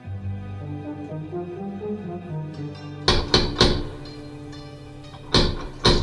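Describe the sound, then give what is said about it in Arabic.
Sharp knocks on a door, three in quick succession followed by two more after a pause, loud, over a faint steady musical hum with no talking. “اه محمد وتحل الباب”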